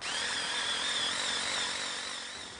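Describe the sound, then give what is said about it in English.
A power drill whines steadily as it bores into the wood of a Christmas tree trunk, drilling the tree for a stand; a high sustained motor tone that holds for a couple of seconds before easing off slightly; no voices. “Colin is just about to drill a tree for one of the uh, stands.”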